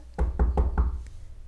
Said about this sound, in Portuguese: Chegavam os revolucionários batendo na sua porta